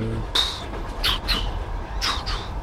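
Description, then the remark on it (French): A steady low rumble of a train passing alongside without stopping, with its rhythm and sharp, high-pitched metallic squeaks coming in short bursts, several in quick succession, moderately loud. “Euh, j'ai déjà fait plein d'enregistrements du bruit du train, mais là j'enregistre vraiment le, train qui qui, passe avec son rythme et tout, un autre train qui passe à, côté et qui s'arrête pas.”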